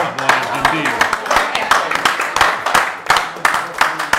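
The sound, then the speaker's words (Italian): An audience at an evening event applauds a guest, a dense wash of many hands clapping steadily for several seconds, with sharper individual claps popping out and some voices mixed in underneath. “Un applauso.”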